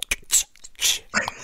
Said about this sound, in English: You know what? I'm going to crack a beer for him.